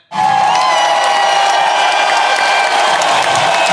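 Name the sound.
people clapping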